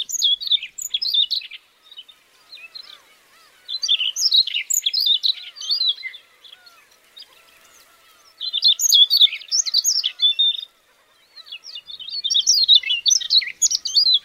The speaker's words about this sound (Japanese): 草原と森林の野駒のさえずりを比較してみると草原の方が大きく少し複雑な節回しでした風の強い環境で鳴き続ける草原を住処にする野駒の方がさえずり上手になっていたようです